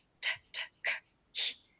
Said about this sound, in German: Und dann atmet man einfach in den Bauch und macht pff